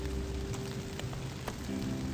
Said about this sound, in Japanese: その間にやっぱりね雨が止んでくれたらいいなと思いますが